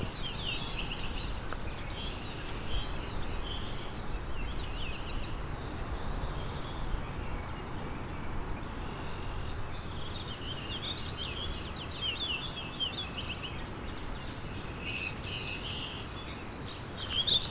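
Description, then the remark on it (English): Two black-throated blue warblers sing repeated buzzy, rising 'beer beer bee' phrases, trading songs over a steady, rushing background noise, with no voices. “two black-throated blue warblers here doing their beer beer bees.”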